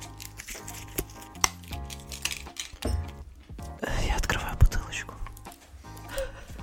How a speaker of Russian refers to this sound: Я откручиваю. Мюзле. Не знаю, как это называется. М- Крутилку. Мюзле. Шампанскую. Мюзле.